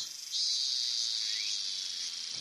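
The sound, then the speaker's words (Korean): Cicadas drone in a steady, high-pitched buzz that swells in at once and holds continuously, loud, with no voices present. “오직 매미 울음소리에만 귀를 기울였다.”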